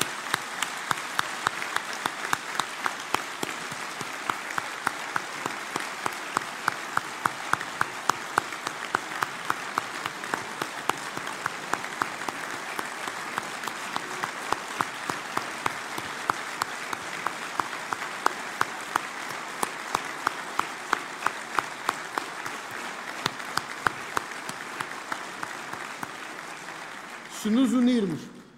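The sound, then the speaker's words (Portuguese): A large audience at a Portuguese political party rally applauds steadily for nearly half a minute for the party's members of Parliament, a dense, even wash of many hands clapping, fading out as a voice begins speaking at the very end. “os deputados e aquele trabalho incrível que têm feito e a que eu peço uma grande salva de palmas pela coragem que têm tido no Parlamento.”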